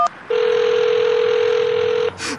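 A short dialing beep as 5 is dialed, then a single long, steady telephone ring tone that holds for nearly two seconds before cutting off, followed by a brief muffled rustle.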